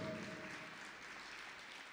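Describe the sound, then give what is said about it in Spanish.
A crowd claps steadily, a dense wash of many hands applauding together at a fairly loud, even level, with a faint tonal hum at the start and no talking. “Dale un aplauso.”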